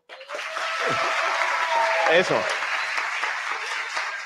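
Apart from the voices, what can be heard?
applause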